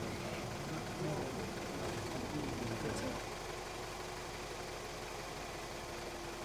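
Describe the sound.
A van's engine runs on a ferry with a low, steady idling rumble and constant vibration as it prepares to drive off the boat, while muffled voices speaking Croatian murmur under it for the first few seconds before fading out.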